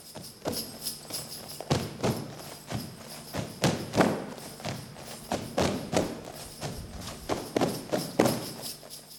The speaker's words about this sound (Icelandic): Forn stappdans vúsetól menningarinnar í núverendi Kroatíu en fyrir rúmum 5.000 árum, en stígin á Balkanskaga. Hann er nánast hljóðlaus, aðeins heyrist trampað Fyrst konur skreittar koparfestum sem ringlar í en síðan bætast karlar í hópin.